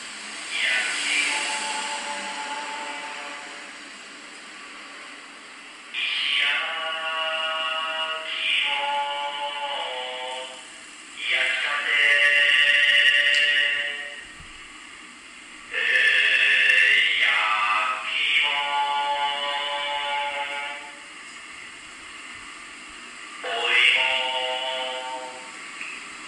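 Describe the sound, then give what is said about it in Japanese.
A Japanese stone-roasted sweet potato (ishi-yaki imo) vendor's advertising jingle, played from a truck with a stone oven on the back: a drawn-out, sing-song sung call in long, wavering phrases, repeated several times with short pauses between them over a steady background hiss. “これは多分日本でしかやってない面白い文化だなと思って今日ご紹介したくてですね、その石焼き芋屋さんがよく使っている音楽を今日聴いてもらって、こう、あ、こんななんだと思っていただければと思います。”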